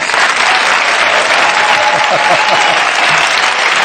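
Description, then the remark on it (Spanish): Steady, dense audience applause for the stage manager on his birthday fills the whole stretch, many hands clapping at a constant loud level with a faint murmur of voices underneath. “Y un aplauso también para el regidor, que es su cumpleaños.”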